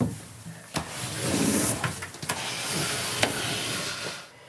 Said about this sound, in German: öffnet die Tür zum Archiv. Eine schmale Kammer voller Wandschränke und Regale, wo die alten Aufzeichnungen lagern.